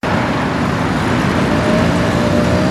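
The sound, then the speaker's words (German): Dense, continuous road traffic at the Plärrer, a major traffic junction in Nuremberg, Germany, on a normal day: a steady roar of car and bus engines and tyre noise, loud, with a faint engine whine running through it and no voices. “So klingt es auf dem Nürnberger Plärrer, einem der Verkehrsknotenpunkte normalerweise.”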